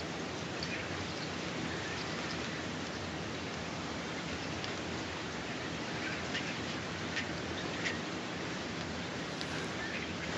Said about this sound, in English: But yeah, it was trained on three hours of field recordings in the area and then it's being generated now. the last is there. There's a flock of birds.